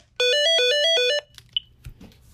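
A short electronic phone tone of an outgoing call being connected plays a quick, bright sequence of alternating pitches for about a second. A small beep and faint clicks follow, with no voices.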